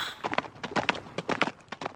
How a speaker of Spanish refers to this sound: Allá se ve que viene a lo lejos. Allá se ve que viene a lo lejos, galopando.